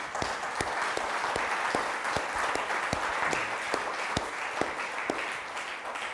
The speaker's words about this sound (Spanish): Denle un aplauso, Señor, por favor.